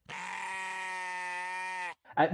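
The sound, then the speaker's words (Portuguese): A single long, steady goat bleat sound effect, loud, held for nearly two seconds before cutting off abruptly, followed by a brief rough vocal burst. “Ah, mano, eu fico umas vezes pensando, porque vocês estão tá ligados que eu tenho matado pelo nosso som do bode, né?”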